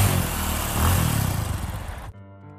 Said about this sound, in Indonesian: Namun di tengah perjalanan, tiba-tiba motorku mati mendadak dan aku pun menepi